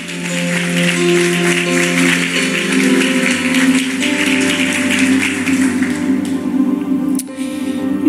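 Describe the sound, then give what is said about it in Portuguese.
A church audience applauds Jesus in a dense, steady wash of clapping that carries on for several seconds over sustained keyboard-like musical tones, thinning slightly toward the end. “Aplauda Jesus. Celebre a presença dEle.”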